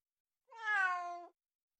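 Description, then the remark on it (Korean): A single drawn-out cat meow, clear, rising slightly then falling over nearly a second, with silence before and after. It stands for Montaigne's own cat. “모든 것을, 심지어 자기 고양이도 그렇게 바라보았다.”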